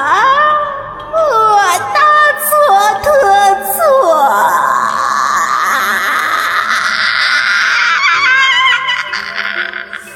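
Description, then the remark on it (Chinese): A man screams shrilly in agony as he tears out his own eye, loud and unbroken for about ten seconds, his voice wavering in jerky pitch steps before stretching into a long, rising wail that trails off at the end. “他的叫声凄厉而痛苦，我无法移动，恐惧让我愣在原地。”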